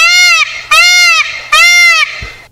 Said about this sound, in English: Well, upper quartile peacock sounds. Rare uh, air of peacock.